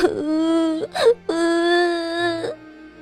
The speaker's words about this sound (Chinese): 好似感受到了小约翰痛苦的小白，也发出了一声狼嚎。